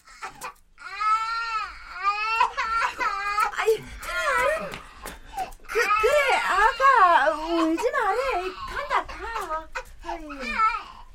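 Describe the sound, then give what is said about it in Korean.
A young child in a living room cries and wails without pause after a man's scream, high-pitched sobbing cries that rise and fall in pitch, broken by short catching breaths, fairly loud throughout. “울음소리가 들려오자 거실엔 잠시 침묵이 이어진다.”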